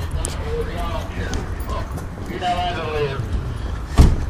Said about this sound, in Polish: No, jakiś taksówkarz radio ma włączone.